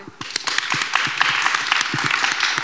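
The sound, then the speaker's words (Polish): A crowd applauds steadily, many hands clapping in a dense, sustained patter with scattered sharper claps standing out, moderately loud throughout. “Brawa.”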